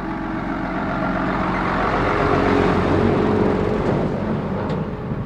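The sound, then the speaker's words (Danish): A truck drives past, its engine a steady low rumble that swells to a peak midway and then starts to fade, loud, with no voices over it. “nu lader vi lige en lastbil køre forbi.”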